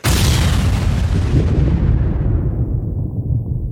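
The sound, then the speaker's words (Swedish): A loud explosion sound effect bursts in abruptly, with a deep rumbling boom that sustains and slowly darkens as the high crackle fades over several seconds. No voices. “kan vi få lite explosioner.”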